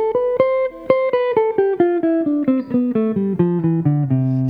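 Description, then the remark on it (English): A descending scale played on a single melodic instrument at a tempo of about 120, about fifteen evenly spaced, clearly articulated notes in a steady quick eighth-note rhythm, fairly loud with no talking. “And, I, you know, playing scales at about 120, you're looking at somewhere like eighth notes.”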